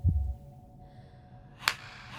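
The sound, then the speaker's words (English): A single sharp, cracking slap as a woman hits her face hard on a footpath above a valley, rings out against quiet, low background rumble, preceded by a soft dull thump; the strike is brief and crisp, with a faint tail afterward. “Alice slapped her face hard”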